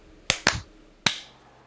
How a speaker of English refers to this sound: All right, clap sync. Three, two, one.